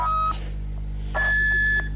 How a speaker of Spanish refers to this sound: Parece que es la bocina, la bocina que llaman los bamboinos